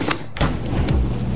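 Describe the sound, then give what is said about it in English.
A new washer and dryer laundry set clunks and clicks, with a few sharp mechanical knocks over a steady low rumble, fairly loud and with no voices. “Those are the sounds of a new laundry set that provides a powerful yet gentle clean in less time”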